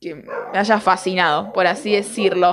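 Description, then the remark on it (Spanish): A female dog named Brisa barks several times in the background, the sharp yaps tangled up with a person talking steadily in the foreground. “Y bueno, si se escucha esta grabación es eh, Brisa ladrando de fondo, porque nada, siempre mi perra puede ladrar en cualquier momento.”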